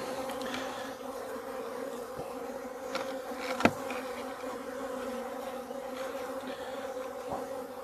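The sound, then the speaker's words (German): A steady, dense hum of many honeybees buzzing during a hive inspection, continuous throughout with a few brief clicks and knocks, one sharper tap near the middle; no one speaks. “Das heißt, dass die Bienen, die Arbeiterinnen, Platz halten im Honigraum.”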